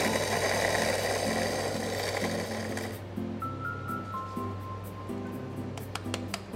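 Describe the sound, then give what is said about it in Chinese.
An electric coffee grinder grinding Golden Mandheling coffee beans at grind setting 4.5 whirs loudly with a steady motor hum and gritty crunching for about three seconds, then cuts off, leaving a few soft clinks and taps. “那我们就磨豆子。”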